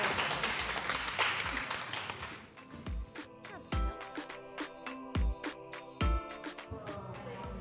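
A burst of applause from a sound-effect button, dense clapping noise for about two seconds that fades into ringing tones punctuated by several sharp, thumping hits.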